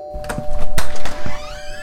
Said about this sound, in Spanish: Ay, alguien llama a la puerta.